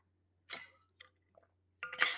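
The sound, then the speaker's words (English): Someone drinking water: a few short wet sips and gulps spaced apart, ending in a louder, longer slurp, with no talking. “Think about that for a second as I drink my water.”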